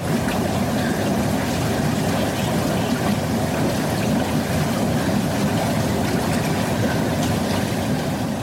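Murky, foul-smelling water of a sulphur spring wells up from underground at the edge of a small wood between Prievrana and Nové Hony near Poltár, bubbling and gurgling steadily, a dense, continuous churning with no pauses and no voices over it.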